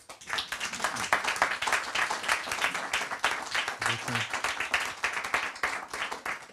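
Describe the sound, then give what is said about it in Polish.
Steady audience applause for the event's production crew, many hands clapping densely and continuously at a fairly loud, even level, with faint murmurs of voices underneath. “Proszę o brawa, bo to,”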